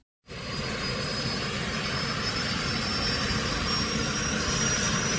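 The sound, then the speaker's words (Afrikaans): The British Bloodhound supersonic car, the world's fastest vehicle, powered by a modern EJ200 jet engine, roars loudly and steadily, a dense rumbling blast topped by a thin high whine, cutting in abruptly and holding for several seconds with no voices. “Dit is die oorverdowende geluid van die Bloodhound se persooniese motor.”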